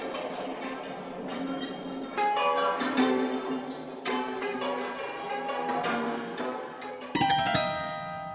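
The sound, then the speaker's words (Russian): A tense orchestral horror-film cue plays on its own, with sustained dissonant tones, sharp percussive hits and an abrupt, louder shift near the end. “он не страшный сам по себе, но вот музыка там, она пугает просто с первых нот.”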